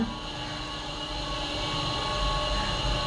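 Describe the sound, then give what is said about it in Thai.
A steady mechanical hum and whir of a museum elevator with automatic doors, the car in motion, with a constant droning tone and faint rumble throughout and no voices. “โอ้โหอุ้ยลิฟต์อุ้ยไม่เคยขึ้นลิฟต์แบบนี้เลยมีประตูอัตโนมัติด้วยอ่ะ เหมือนเข้าห้องเลยอ่ะอ่า นี่มีอักษรเบลด้วย กด ตึ๊บอ้าเป็นไง ขึ้นลิฟต์พิพิธภัณฑ์”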